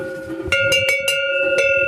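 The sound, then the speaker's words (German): A cowbell from a set of seven differently sized sheet-metal bells, each with its own tone, hanging in a row in a shed, rings with several quick metallic strikes, its bright, sustained overtones hanging steadily between hits. No voices, just the clanging bell over a faint background. “Fein aufgereiht hängen sieben verschiedene große Glocken bei ihm im Schuppen.”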